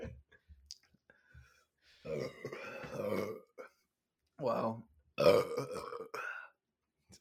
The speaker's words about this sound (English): Good just... belch. Good belch.